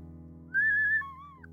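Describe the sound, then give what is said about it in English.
A breathy, flute-like ocarina plays two held notes, a higher one sliding into a lower one, clear over a faint steady hum, with no talking. “Um, that was the ocarina pause.”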